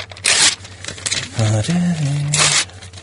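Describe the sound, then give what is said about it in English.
Two short, crisp rustles of a sheet of paper being picked up, one near the start and one near the end, with a brief hummed vocal sound in between. “So, um, let me just uh, get my sheet of paper.”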